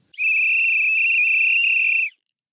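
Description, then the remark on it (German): A single loud, shrill blast of a trill whistle held steadily for about two seconds, with a sharp start and abrupt stop and no voices, blown while walking through bushes. “Und ähm, außerdem hatten wir zwei Trillerpfeifen mit, genau. damit sind, wir die immer schön trillern können.”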